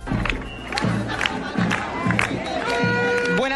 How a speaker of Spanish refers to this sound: Desde la playa de Copacabana, en Río de Janeiro, en estos momentos está comenzando una manifestación de alrededor de 200 profesores, trabajadores eh, y funcionarios del gobierno del Dilma Rousseff.